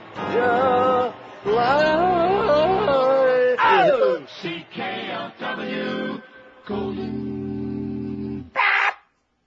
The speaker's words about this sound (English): just a little jingle, in case Mike is still listening. Let's play some CKLW jingles.